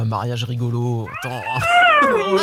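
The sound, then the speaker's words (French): A young child's high, wavering cry (the speaker's son), mewing much like a cat, rises in the second half after a woman's speech and carries on loud in a couple of drawn-out wails. “c'est un chat ou un bébé on s'est demandé quel était le bruit derrière toi”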